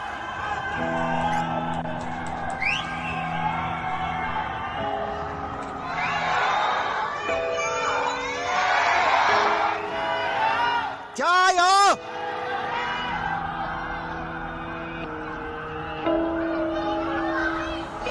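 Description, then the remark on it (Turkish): Many voices of residents in high apartment buildings shout "stay strong" in Chinese to one another, overlapping and echoing, with a sharp whistle-like cry rising near the middle and steady crowd-like yelling throughout. “Yani ayakta dur, güçlü dur diye birbirlerine burada bağırıyorlar.”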